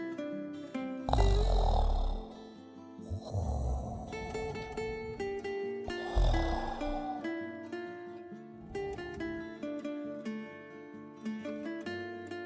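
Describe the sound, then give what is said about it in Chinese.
Low, contented cat purring in a room with a fireplace, rumbling in slow repeating swells, about one every two to three seconds, over soft sustained background music with no talking. “不一会儿，房间里就发出了低沉而愉快的呼噜声。”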